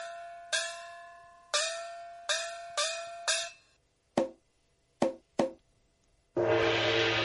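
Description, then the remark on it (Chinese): A night watchman calling the third watch strikes a gong five times in an uneven rhythm, each hit ringing with a bright metallic tone that quickly decays, followed by three sharp clacks and a loud, sustained noisy wash. “那个，那个未必，鬼还害怕烤锣啊！”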